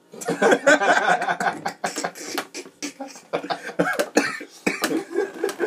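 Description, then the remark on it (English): A loud fit of coughing right up against the microphone, several harsh bursts in quick succession with a bit of chuckling mixed in between. “You gotta cough away from the mic on that one.”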